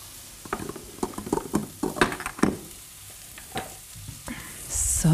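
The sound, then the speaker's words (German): A bay leaf is dropped into a frying pan: continuous sizzling with scattered crackles and pops, a few louder bursts early on, and a brief swell of hissing near the end; no one talks. “Okay, also ein Lorbeerblatt noch. Kommt auch dazu. Boom, rein in die Pfanne.”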